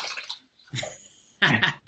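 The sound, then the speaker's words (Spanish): A female dog, just getting up from her nap, lets out a few rough, throaty groans that sound like a small lion's roar: three breathy bursts, the last one loudest, with no talking. “Uy, si escucháis un león rugiendo, es nuestra perra.”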